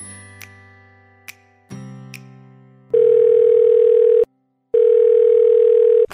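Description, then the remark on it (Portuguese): A few soft clicks and low tones give way to an outgoing call's ringback: a steady, loud single-pitch tone lasting over a second, a brief pause, then the tone again, with no voices. “vamos ligar para Douglas Ganso e ouvir que histórias ele tem para contar para gente”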